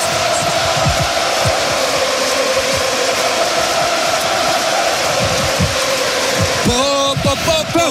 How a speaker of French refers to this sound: Écoutez le Stade de France. Ah, il y a le Stade de France qui rugit. On écoute ça. C'est beau, hein